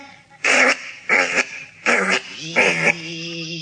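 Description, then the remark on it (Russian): A voice imitates a motor humming, started by pressing a button on the speaker's belly: four short, buzzy rhythmic bursts, fairly loud, trailing into a steadier low drone at the end. “Ну вот, слышишь? Мотор гудит.”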